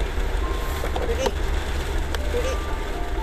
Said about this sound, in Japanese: 私の住んでいる辺りはね、え嵐です朝からねすごい強い風が吹いていて朝はねそんなに雨まだ降らなかったんですけれども、えー、今ね午後の4時12分なんですが、えー、大粒のね雨がねバタバタと降り